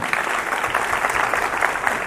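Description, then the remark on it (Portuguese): Steady audience applause, a dense wash of many hands clapping at an even loudness for a couple of seconds with no voices on top. “Salve Salva de palmas para ela, por favor.”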